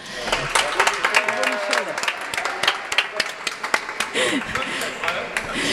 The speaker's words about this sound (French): qu'on peut applaudir déjà.